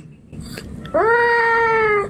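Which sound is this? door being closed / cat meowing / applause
cat meowing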